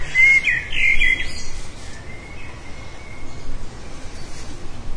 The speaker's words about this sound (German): Nee, nee. Das sind die Handyvögel, glaube ich.